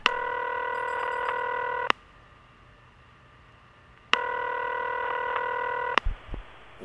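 Telephone touch tones sound as a number is dialed. Two steady electronic tone bursts, each about two seconds long, are separated by a short silence. They are clear, with no voices.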